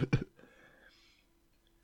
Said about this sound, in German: nicht räuspern, du sollst immer hüsteln. Du sollst nicht machen, sondern. Also immer wenn du irgendwie Stimme ein bisschen weg ist und du denkst, du musst jetzt räuspern, machst du lieber.